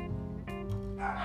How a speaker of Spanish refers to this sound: disculpen los perros